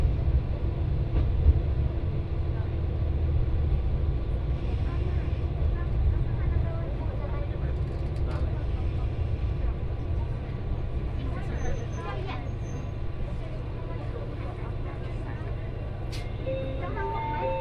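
A local one-man train bound for Fukui on the Etsumi-Hoku Line in Japan, running from Hakariishi to Fukui, a steady, heavy low rumble with rattling and occasional faint clicks and squeals, holding an even loudness throughout.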